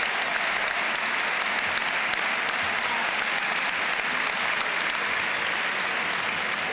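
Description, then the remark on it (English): Sustained applause from a large stadium crowd at an Everton football match as Romelu Lukaku is substituted off for Gerard Deulofeu, a dense, steady wash of clapping at an even loudness throughout, with no voices standing out above it. “Deulofeu is on and great applause as well for Romelu Lukaku.”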